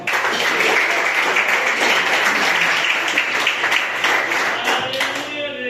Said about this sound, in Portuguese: e as palmas que adorem ao Senhor.